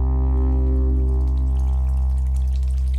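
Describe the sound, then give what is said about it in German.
Water trickles steadily from a small indoor tabletop fountain, a soft continuous babble over a low, constant pump-like hum, unchanging for the whole few seconds with no voices. “Den Zimmerbrunnen stellen wir wohin?”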